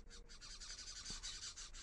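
Small birds chirp busily and continuously, a dense flurry of high, rapid tweets overlapping with one another, fairly quiet and steady throughout, with no voices present.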